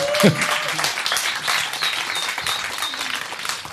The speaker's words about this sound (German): Herzlichen Applaus bitte